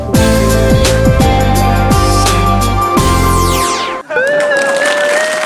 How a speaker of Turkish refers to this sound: Evet çok, çok teşekkür çok teşekkür çok sağ olun çok mersi çok teşekkür İyi ki varsınız iyi ki varsınız çok teşekkür ederim alkışlarınız için